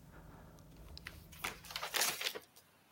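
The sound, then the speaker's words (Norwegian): Soft papery rustles and a few crisp flicks as a 45-year-old Russian history teacher leafs through the pages of his notebook somewhere in Norway, over a quiet low hum, growing busier toward the end. “Et sted i Norge sitter en russisk historielærer og blar i notatboka si.”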